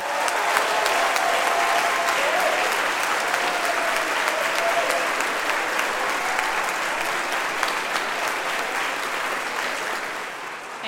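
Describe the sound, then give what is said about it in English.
Sustained applause from a large audience in support of the members of the fall sports teams, a dense, steady wash of many hands clapping at an even loudness throughout, tapering only slightly at the very end. “If you are on any of our fall sports teams, would you raise your hand and let us show our support for you and your season by applauding you?”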